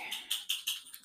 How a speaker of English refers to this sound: You can hear my mum's dog there in the background.